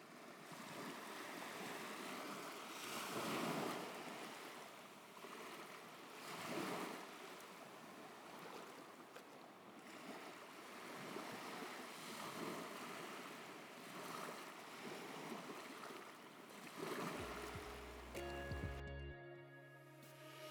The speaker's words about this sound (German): Und jetzt nochmal zum Abschluss ein bisschen Meeresrauschen und ich wünsche dir einen wunderschönen Tag.